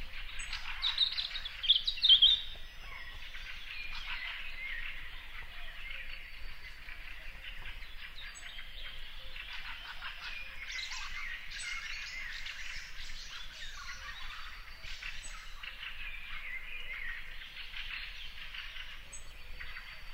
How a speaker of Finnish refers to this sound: Metsikön punarinta heräilee.